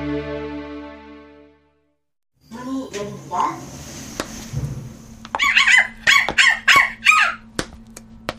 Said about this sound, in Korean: 아파트 엘리베이터에서 내리자마자 옆집 강아지가 지저댄다.